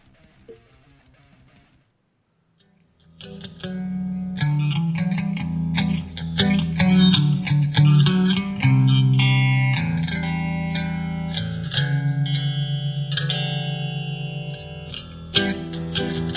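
A rock song kicks in after a brief quiet moment, with loud, heavily distorted electric guitars, a driving bass line and a sustained, dense full-band sound.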